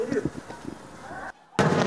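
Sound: explosion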